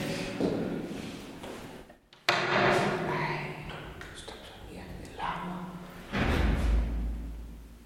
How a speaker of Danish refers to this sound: Der smækkede en dør i det, Jeg fik et det, Hvad fuck var det? Mit hjerte banker.